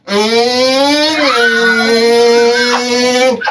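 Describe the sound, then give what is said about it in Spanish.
A voice imitates a motorcycle engine with a loud, steady buzzing drone lasting about three seconds, its pitch rising slightly partway through like a revving bike. “Pero a mí me dijeron que así grababan los sonidos de las motos, incluso”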